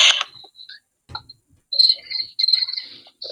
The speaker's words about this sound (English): Crickets.